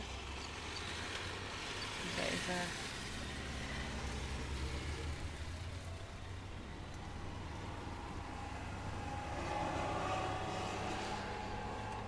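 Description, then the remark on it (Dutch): A motorcycle engine rumbles by, a steady low drone with broad road noise that swells slightly early on and again near the end, with a brief faint voice. “Een motor.”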